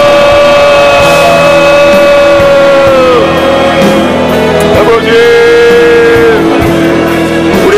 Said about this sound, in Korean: 우리 부모로서 1세대들로서 젊었던 힘까지 다해서 주여 외치시며 우리 축복합시다. 주여!